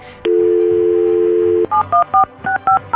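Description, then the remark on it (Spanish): A steady dial tone hums for over a second, then gives way to a quick run of about seven or eight telephone keypad beeps, each a short two-pitch tone, clear, as a phone number is dialed to place a call. “Bien, mire, quédese en la línea telefónica, vamos a marcarle.”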